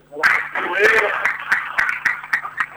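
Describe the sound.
Applause rises from a crowd at a ceremony where president Ignacio Rubio embraces a departing deputy and a shirt and plaque are presented: irregular sharp claps over a steady wash of noise and murmuring voices, fairly loud throughout the short stretch.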